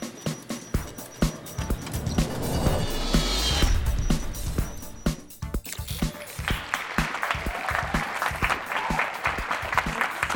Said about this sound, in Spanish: ¡Qué bueno estar de vuelta! Ahora sí, esos son aplausos de amor.